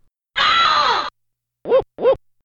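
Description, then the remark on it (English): Retro 16-bit Super Nintendo video game dog bark effect, hidden in a game's loading screen and triggered by pressing a button: a long, harsh, rasping cry followed by two short, clipped barks in quick succession, loud and synthetic-sounding, with no talking. “if you hit a like one button uh you hear a woman scream if you press another button you'll hear a dog bark”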